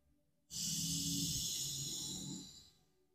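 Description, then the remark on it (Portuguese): A single long, deep breath drawn in during a guided breathing exercise with eyes closed, a steady airy rush lasting about two seconds before fading away, with no talking. “Feche seus olhos e foque a sua atenção somente na sua respiração. Respire.”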